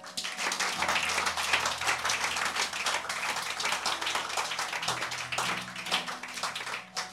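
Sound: audience clapping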